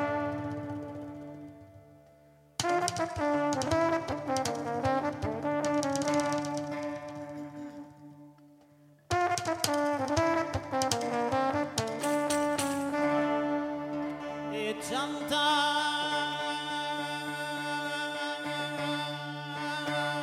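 A voice sings live over sustained brass accompaniment, the music loud and close, with brief breaks in the sound near three and nine seconds before the playing resumes.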